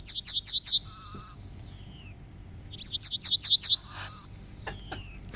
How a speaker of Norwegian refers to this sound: Det høres ut som den teller til sju. Ja. Er det en gullspurv? Ja! ja!